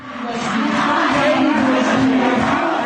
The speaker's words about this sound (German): In einer iranischen Universität schreien Studentinnen einen Regierungssprecher nieder, weil sie das Regime für den Tod einer Mitstudierenden verantwortlich machen.